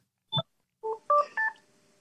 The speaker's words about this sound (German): Boah, jetzt klingt das Telefon. Das ist der nächste Kunde, der gleich den Anzug haben will.